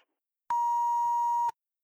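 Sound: answering machine beep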